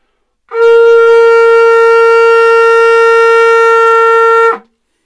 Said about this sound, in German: Das ist ein Kudu-Horn, also von einer Antilope.